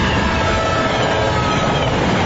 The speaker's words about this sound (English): But one thing you should never try and beat is a train. If a train is approaching, don't risk your life trying to beat it, because beating the train is a deadly game.